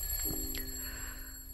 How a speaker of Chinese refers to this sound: 不啷刚刚刚刚刚刚刚刚刚，什么声音呢？手机闹铃突然间剧烈的响了，把他给吵醒了。